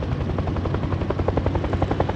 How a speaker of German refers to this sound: 25 Meter über dem Boden brachte ein Pilot den fremden Helikopter zum Stillstand. Die Seitentür wurde aufgeschoben.